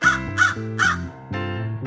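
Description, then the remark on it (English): A baby boy, asked what the crow says, imitates a crow, letting out three quick, raspy caws followed by a longer drawn-out one, fairly loud with no other talking. “what does the crow say?”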